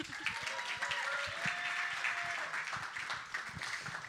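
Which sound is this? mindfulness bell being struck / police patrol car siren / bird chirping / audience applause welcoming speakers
audience applause welcoming speakers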